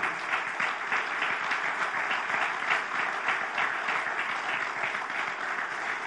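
An audience applauds the Lord during a church sermon, steadily for several seconds, a dense, continuous wash of many hands clapping at an even loudness with no voices standing out.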